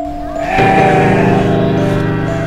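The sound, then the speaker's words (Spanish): A single long, loud sheep bleat that wavers and trembles for about two seconds, alone with no voices. “¿Eres una oveja zombie?”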